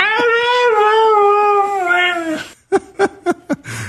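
The famous dog Mishka, with over 100 million YouTube views, lets out a long, wavering howl, then breaks into a quick string of about five short, yowly vocalizations that sound almost like talking, fairly loud.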